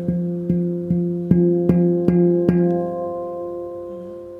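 A handpan note is struck by a finger at one spot about seven times in a steady rhythm, each tap clear, its warm tone and shimmering overtones ringing on and fading after the last strike.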